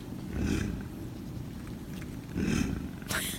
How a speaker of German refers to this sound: Es knurrt. Ja, heißt im Fachbegriff tatsächlich, es knurrt. Es knurrt.